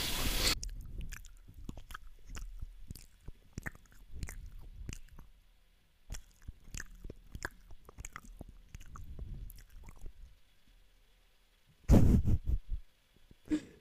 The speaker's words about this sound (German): Digga, ich dachte, irgendwann sagst du mal, dass, dass sich dieses übelst übertrieben laute Schmatzen stört oder so, Digga, aber nein. Er sagt einfach gar nichts. Ihn juckt das nicht, ob ich 2000 Dezibel laut schmatze